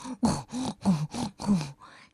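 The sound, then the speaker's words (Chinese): A voice imitates the calls of various farm animals, as a little fox character does in a children's story: five short moo-like and bleating sounds in a steady rhythm, each with a low falling pitch, followed by a fainter breathy tail. “小狐狸福哥模仿起了农场上各种动物的叫声：“ 哞儿，哞儿”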